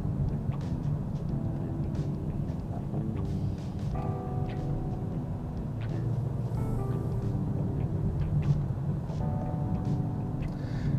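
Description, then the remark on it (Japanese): A steady low engine rumble from inside a car moving slowly around a company parking lot with no free spaces, with faint mechanical hums and occasional clicks, continuous throughout with no talking. “あ今日は空いてないかな今ね会社の駐車場まで来たんですけど全然駐車場が空いてないんでちょっと返したいと思いますと遅く来すぎちゃったね今日”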